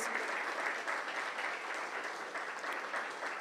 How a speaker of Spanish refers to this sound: Un aplauso para el Señor, un aplauso para Dios.